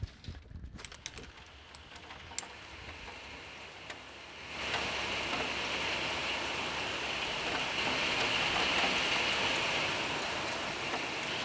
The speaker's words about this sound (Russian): А, да, насладились звуками природы на зимой. У нас просто начался ужасный ливень.